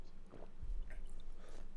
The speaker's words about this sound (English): As I finish off the last little bit of my chips, I just had a little uh, one in the personal bags.